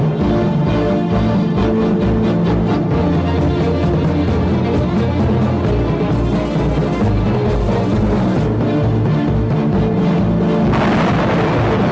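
Loud, dense bursts of gunfire crackle and boom over a heavy rumbling background for about twelve seconds, with no one speaking, as 12 detained civilians are shot by firing squad at the garbage dumps of José León Suárez, Buenos Aires province, in the early morning of 10 June.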